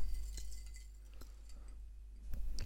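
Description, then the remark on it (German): A spoon clinks against the inside of a glass while stirring, several light metallic taps spaced irregularly, fairly quiet, with a low steady background hum and no talking. “Jetzt wurde ich gerade von meinem Mann davon abgehalten, in meinem Glas umzurühren, weil das zu laut ist.”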